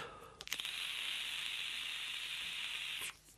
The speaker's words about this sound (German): Das Gute an den Knöpfen ist, ich kann zwischendurch mal dampfen. Das hört sich übrigens komisch an, wenn ich gerade Dampf, äh, äh Dampfzeug im Mund hatte und da reinrede.